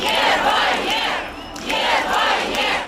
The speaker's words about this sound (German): Und auch in St. Petersburg, der zweitgrößten Stadt Russlands, gingen am Wochenende Hunderte auf die Straße und riefen Nein zum Krieg.